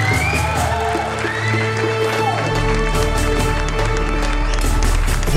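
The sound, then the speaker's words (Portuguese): A loud, busy intro jingle plays with layered instruments and a driving beat, steady and full throughout, no voices. “vinheta, é filha da puta.”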